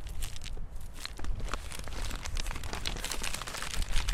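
Steady crinkling and rustling of a small paper seed packet as seeds are sown from it into cracks, with irregular crackles and soft ticks running throughout the few seconds, no voices.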